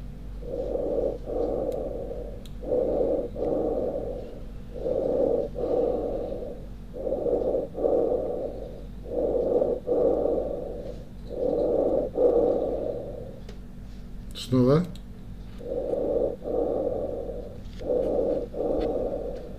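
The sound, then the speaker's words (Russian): Steady bronchial breathing heard through a stethoscope, with about eight even breath cycles of harsh, hollow inhales and exhales over a low hum, and one brief rubbing noise near the end. “Так, теперь у нас шум нормального бронхиального дыхания.”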